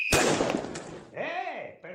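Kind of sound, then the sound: sound effect, firecracker bang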